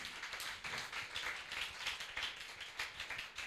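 An audience claps steadily, many overlapping hand claps forming a dense, sustained crackle of applause that holds at an even, fairly loud level with no voices over it.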